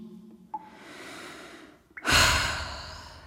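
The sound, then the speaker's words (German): A slow, deep breath in followed by a louder, fuller exhale, with a brief pause between them and no talking, as a person lies down and breathes deeply to relax. “Siebenmal ein und aus, tief ein und aus.”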